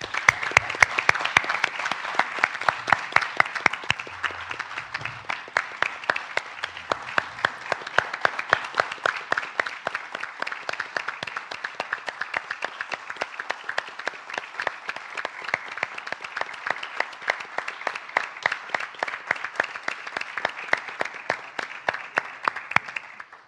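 Sustained audience applause, a dense crackle of many hands clapping steadily for over twenty seconds at an even, moderately loud level, with no voices over it.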